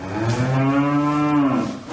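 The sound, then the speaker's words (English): A single cow gives a long, steady moo lasting nearly two seconds, loud, with a rich droning tone and no other sounds around it. “And now, in a world first, New Zealand farmers will have to pay a tax for every one of the methane emitting 10 million cattle and 26 million sheep that roam the scenic countryside.”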